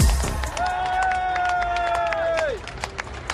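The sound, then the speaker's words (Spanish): A crowd of thousands at Buckingham Palace applauds as the new King Charles III and his wife Camilla are received, with a dense patter of scattered claps, while a long, steady high-pitched call rings out over the clapping for about two seconds before trailing off. “Entre aplausos y estrechones de mano, el nuevo rey Carlos III y su esposa Camila fueron recibidos en el Palacio de Buckingham por miles de personas eh, que le expresaron su apoyo y sus condolencias eh, por la muerte de su madre.”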